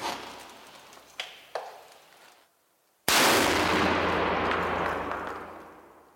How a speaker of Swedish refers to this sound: Skottet går av och väskan förstörs.